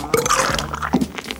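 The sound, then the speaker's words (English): A short, wet sputtering burst, like a beer tap spitting and gurgling as it pours, with a low belch-like croak mixed into the squishy, bubbling noise. Fairly loud. “It's definitely somebody belching. Then they combine that with somebody pouring”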